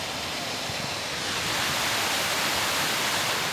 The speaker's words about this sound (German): Ich bereue gerade so ein bisschen, dass wir keine Badesachen mitgenommen haben, denn wenn man sich den Wasserfall genau anschaut, hat er mehrere Becken, in die man sich durchaus auch reinsetzen könnte. Äh, er fließt eigentlich von Becken zu Becken.